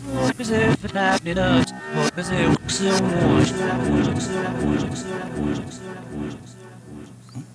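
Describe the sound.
A tape played backwards: garbled, moaning voice-like sounds with sharp swelling attacks, continuous and fairly loud for several seconds, then trailing off.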